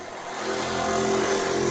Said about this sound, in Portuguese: Vai passar uma moto aqui, peraí.